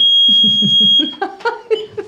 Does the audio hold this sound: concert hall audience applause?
no